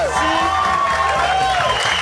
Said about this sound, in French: Et une bonne main d'applaudissements pour Mike Ward, mesdames et messieurs.